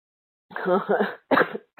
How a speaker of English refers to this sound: Sorry, everybody. I'm just going to mute myself and cough.